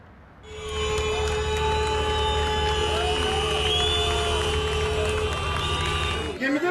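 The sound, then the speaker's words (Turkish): A crowd of passengers stranded for hours on a broken-down Avşa–Istanbul car ferry in the middle of the Sea of Marmara clamors and shouts in protest, voices blending into a loud, continuous roar over a steady low engine drone and humming tones. “Denizin ortasında saatlerce mahsur kalan yolcular protesto etti.”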